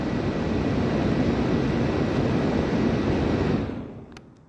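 A laptop fan behind the speaker, with a phone resting on the laptop, whirs with a loud, steady rushing roar, then quickly dies away near the end, leaving near silence. No one speaks.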